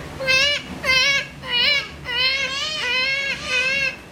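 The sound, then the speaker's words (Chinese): A baby cries in about six high, wavering wails that follow each other almost without pause, each rising and bending in pitch, fairly loud and with no talking over it. “有一天，他们和平常一样向上天祈求时，突然听见婴儿的哭声。”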